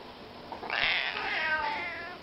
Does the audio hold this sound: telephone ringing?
no